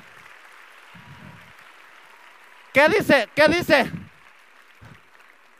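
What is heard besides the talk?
audience applause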